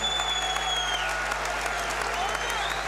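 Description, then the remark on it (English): A huge stadium crowd roars and cheers continuously as the Wrexham and York teams come out onto the pitch, a dense wall of sustained noise with applause and whistles rising through it, loud and enveloping from all sides. “Anyway, here come the teams. My watch just warned me that I'm in a loud environment. Well, listen to this.”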